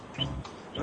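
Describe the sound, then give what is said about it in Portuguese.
Two brief, high chirps from a small bird, thin and fairly faint, rising over a low rumbling background with no one speaking. “É, eu tô ouvindo um passarinho piando aí.”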